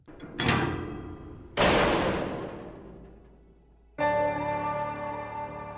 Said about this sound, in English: Bulger's cell slammed shut for the night and he went to sleep for his final time.